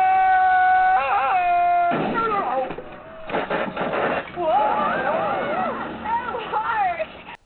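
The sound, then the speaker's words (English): A loud Tarzan yell: a sustained, yodeling cry with sharp breaks in pitch, followed by several seconds of further wavering, excited vocal shouting. “It's pretty amazing how ingrained the Tarzan yell is in our culture.”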